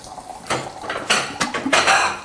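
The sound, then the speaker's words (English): Plates and cutlery clatter as plates are grabbed before a meal, in a quick series of bright, ringing clinks and knocks, four or five sharp hits over a couple of seconds, fairly loud with no talking. “You grab some plates.”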